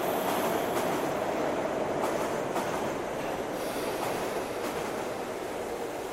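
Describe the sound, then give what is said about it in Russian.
A subway train roars into an empty metro station at night with a steady, dense rumble, faint rhythmic clacks of wheels on rail marking the noise as it fills the space, loud throughout. “С грохотом и стонали выныривает поезд.”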